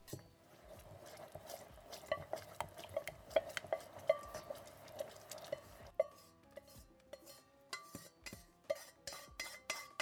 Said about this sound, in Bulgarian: Разбърквам много добре и добавям към пасираната смес.